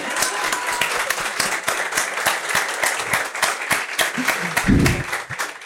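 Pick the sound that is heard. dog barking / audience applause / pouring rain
audience applause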